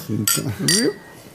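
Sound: glasses clinking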